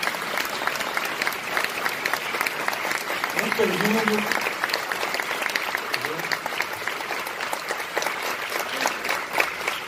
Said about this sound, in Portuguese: E queria chamar também o professor livre docente da Faculdade de Filosofia, Letras e Ciências Humanas da Universidade de São Paulo, professor Vladimir Safato, a quem eu quero receber com uma grande salva de palmas.